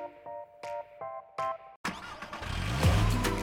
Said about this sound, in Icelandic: Bílinn þinn flýgur í gang í öllum veðurum með Exciter afgemi.